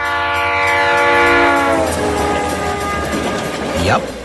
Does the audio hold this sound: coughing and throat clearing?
no